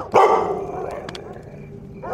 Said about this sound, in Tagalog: Yung tahol niya, yung may interval, hindi tuloy-tuloy. Hindi ko alam, parang signal.